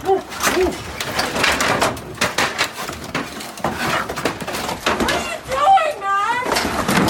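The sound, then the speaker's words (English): Repeated loud thuds and crashes as police (VPD) batter and break down a door barricaded by squatters, after cutting it with a power saw, mixed with a noisy crowd of shouting voices and occasional high whistle-like tones. “after breaking cutting the door. We're now trying to break it down.”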